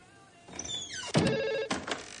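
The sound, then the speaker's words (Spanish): A telephone rings on the line as a call is placed from the washrooms to the Arkham sheriff's office: a bright warbling electronic tone with a falling chirp followed by two loud, buzzing ring bursts, with no voices. “Mientras, Lindsay se asoma desde los lavabos con el auricular del teléfono en la oreja. Entonces llama.”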